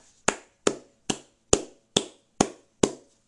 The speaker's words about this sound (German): Toll gemacht, Verstappen. Kurz Applaus da lassen für Verstappen.